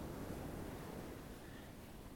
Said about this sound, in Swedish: Hör du vattnet?